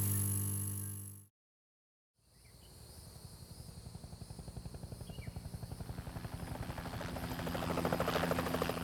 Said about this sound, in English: It was just after 6 p.m. when the hijacked helicopter crested the tree line outside Marion Penitentiary.